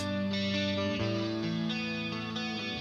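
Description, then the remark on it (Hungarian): An effects-laden electric guitar plays over a steady bass line, the two instruments sounding together in a dense, continuous passage with chord changes roughly every half second. No one speaks. “És akkor ez az előbb hallott basszussal így szól együtt.”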